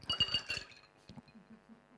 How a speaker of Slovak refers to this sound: Idem hádzať kocky. Ideš hádzať kocky.